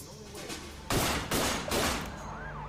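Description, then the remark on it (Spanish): Three loud, sharp bursts of gunfire crack out in quick succession, roughly half a second apart, as mafia hitmen shoot an FBI informant in South Philadelphia, over a low, steady rumble that lingers after the shots fade. “En una sangrienta guerra de la mafia en el sur de Filadelfia, el informante número uno del FBI es asesinado a tiros por sicarios de la mafia.”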